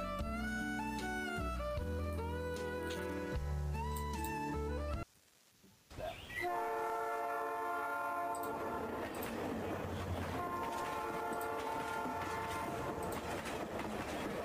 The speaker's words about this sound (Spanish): Y es que el silbido del tren os acaba poniendo en alerta a todas. A través de la ventana podéis ver cómo la línea del ferrocarril entra en la ciudad atravesando las fortificaciones de Vicksburg y, avanza hacia el mismísimo centro de la propia ciudad